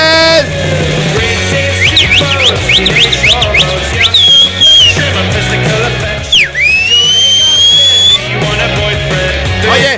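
Sharp whistling cuts through loud, busy music: a quick run of about seven rising chirps, then a long swooping whistle that dips low and climbs back up.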